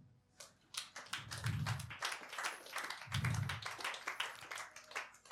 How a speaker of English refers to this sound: Clap your hands.